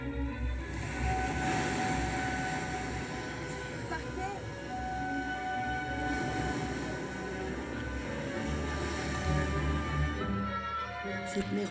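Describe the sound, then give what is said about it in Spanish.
Waves of the North Sea break on a sandy beach in a steady, rushing wash of surf that swells and recedes, fairly loud, with sustained musical tones layered over it. “Este mar del norte y su arena es para mí el comienzo, el comienzo de lo que más o menos sé de mí.”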